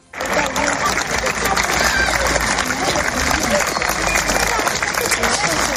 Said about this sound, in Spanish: Y no me quiero olvidar de un pasillo y unos aplausos, los de los niños del colegio Irabia en Pamplona.